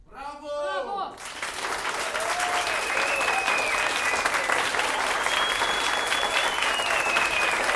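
After a brief vocal phrase, an audience bursts into loud, sustained applause as a performer on stage bows to them, dense, steady clapping for several seconds, with a few high whistles rising over it.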